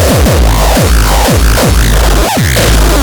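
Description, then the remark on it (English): A loud, heavily distorted drum machine beat: punchy booming kicks with a falling pitch hit in a syncopated pattern over a dense, buzzing wash of noisy percussion, with no voices. “Does your drum machine sound like this?”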